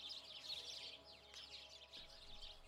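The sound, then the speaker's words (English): A dense chorus of house sparrows (English sparrows) chirping continuously, many overlapping high-pitched tweets from a flock, with no voices present. “120 English sparrows.”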